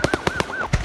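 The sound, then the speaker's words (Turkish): A quick series of sharp, loud popping blasts from products exploding in a burning factory, about five in under a second and unevenly spaced, with a thin wavering siren-like tone behind them. No one speaks. “Evet patlayan ürünler.”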